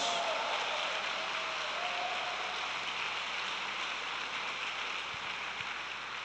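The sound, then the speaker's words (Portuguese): A church audience breaks into sustained applause for Jesus during a sermon, a dense, steady wash of many hands clapping together that holds at an even loudness for several seconds without pause. “Aplauda Jesus por isso, meu Deus!”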